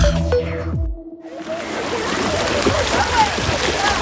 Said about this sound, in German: Das ist doch der Klang vom Sommer, oder? Wassergeplätscher und Kindergelächter, dann weiss man, die Body ist wieder offen.